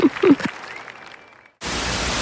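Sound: applause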